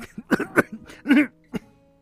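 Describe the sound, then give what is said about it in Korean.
A fitful bout of coughing from someone with a sore throat: several harsh, raspy coughs in quick succession, with one longer, strained cough near the middle and a final short hack, no talking. “살아 들린 듯이 기침이 나온다.”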